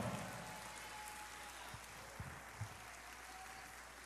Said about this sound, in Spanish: Si usted lo cree, déle el mejor aplauso al Señor en esta hora.